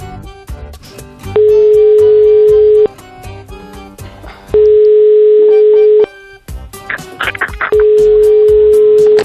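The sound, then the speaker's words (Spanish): A telephone line tone while placing a call: three long, steady mid-pitched beeps, each about a second and a half, separated by pauses, loud over a busy, clattering background. “Pues a hacer una llamada, hijo.”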